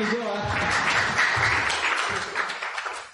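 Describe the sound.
An audience claps steadily for about three seconds, a dense, fairly loud wash of applause with some voices mixed in, tapering slightly at the end.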